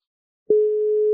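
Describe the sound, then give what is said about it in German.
After a brief silence, a steady electronic telephone tone starts abruptly and holds at an even pitch as a mobile phone is called and held to the microphone. No one speaks. “Ruf mich auf meinem Handy an.”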